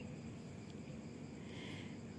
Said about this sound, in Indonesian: kalau kalian ngedengar suara mungkin jangkrik ataupun lain sebagainya ya karena memang sekarang aku lagi di luar ini malam-malam